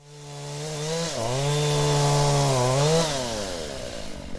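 A chainsaw cutting wood during logging in the forests of El Tume in southern Chile runs steadily, its engine pitch dropping as it bites into wood, then rising again as it revs, droning loudly the whole time with no voices.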